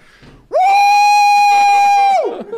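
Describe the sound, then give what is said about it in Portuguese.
A man's voice lets out one long, loud, sustained scream, steady in pitch for nearly two seconds before trailing off, mimicking an excited yell. “Fez assim, deu mó gritão no bagulho.”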